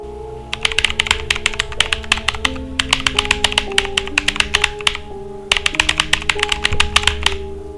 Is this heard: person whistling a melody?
no